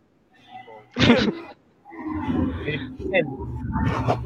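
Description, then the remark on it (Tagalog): A dinosaur roar sound effect: a sudden loud snarling burst, then after a brief pause a longer, rumbling, growling roar that rolls on loud until the end. “oh, may mga dinosaur.”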